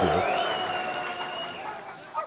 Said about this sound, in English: well, just coming right after the round of applause